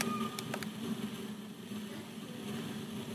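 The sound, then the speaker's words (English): A rainstorm sound effect played during a sermon: a steady, dense wash of storm noise, like heavy rain with a low droning rumble underneath and a couple of brief sharp crackles early on, holding loud and constant throughout. “It sounds like rain, doesn't it? it sounds like a storm. Yeah, it's a sound effect that I've arranged for this sermon.”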